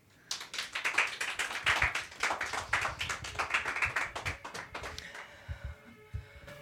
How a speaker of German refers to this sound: Ganz viel Applaus